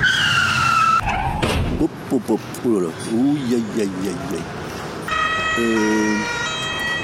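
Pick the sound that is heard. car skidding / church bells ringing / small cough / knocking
car skidding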